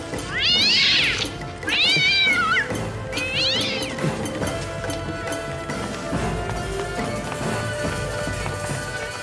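Cats let out three loud, drawn-out, wavering meows in quick succession, rising and falling in pitch like caterwauling, followed by several seconds of steady, muffled background noise.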